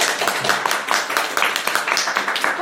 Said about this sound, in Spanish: mi papá, que también nos ha acompañado en la guitarra. Un aplauso también para mi papá.